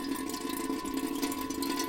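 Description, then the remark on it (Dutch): A thin, weak trickle of water runs steadily from a watering can at a rain barrel, recorded in the evening, a soft continuous splashing with no voices, fairly quiet. “Het is mijn regenton Althans mijn eh, gieter bij de regenton. En dan komt er toch zo'n... Ja, ik heb er eigenlijk geen ander woord voor. Lullig straaltje uit.”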